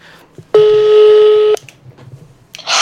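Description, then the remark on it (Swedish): A phone line's outgoing call tone: one steady, loud electronic beep held for about a second, then a quiet pause with faint background noise. No one speaks. “Men nu ringer vi till henne.”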